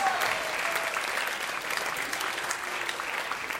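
An audience claps steadily for several seconds for a first-time visitor, a dense, even wash of many hands with no pauses, holding at a fairly constant loudness throughout.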